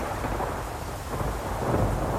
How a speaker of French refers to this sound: Le vent souffla en rafale, le tonnerre gronda le plus fort qu'il put, la pluie tomba à verse.